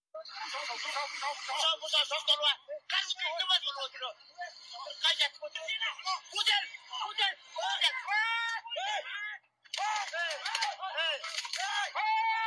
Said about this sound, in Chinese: 在视频中，一辆推土机快速冲向牧场人群，现场不断传出牧民的喊叫声音。